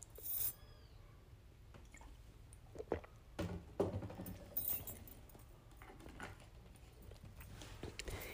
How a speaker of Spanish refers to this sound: disculpen, vamos por un poquito de agua para cerrar esto